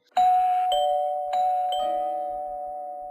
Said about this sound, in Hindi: सुबह उसकी नींद डोरबेल की आवाज़ से खुली